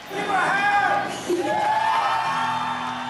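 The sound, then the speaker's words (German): A concert crowd of fans cheers a woman on stage in a dense, steady roar, with high-pitched screams and whoops rising and falling over the noise for about three seconds at a loud, even level. “Die Fans jubeln ihr zu.”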